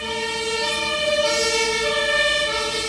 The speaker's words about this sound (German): Schon wieder Sirenen hier. Wahnsinn.